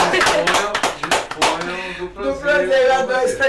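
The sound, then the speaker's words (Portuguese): A burst of audience applause, many hands clapping in quick, overlapping sharp bursts for about two seconds, then fading as a voice begins speaking. “Palmas para vocês.”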